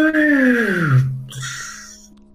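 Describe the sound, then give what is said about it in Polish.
A voice imitates a plane, a droning vocal tone that glides steadily downward, settles into a low hum, then fades into a breathy, hissing whoosh, fairly loud. “A samolot sobie taki”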